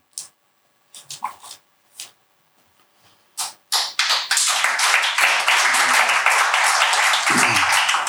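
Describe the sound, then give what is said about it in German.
After a poem is performed on stage, a few scattered, isolated claps give way to a swell of audience applause that becomes dense, loud and continuous, carrying on steadily until the end. “Ist das schon der Applaus, der mich von der Bühne holen soll?”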